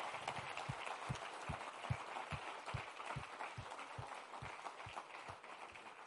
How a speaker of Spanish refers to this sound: Dar un aplauso si lo crees.